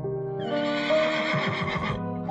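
horse neighing

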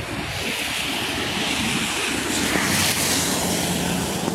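water gushing

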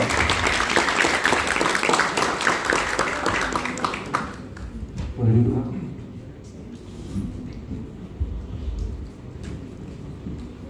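applause

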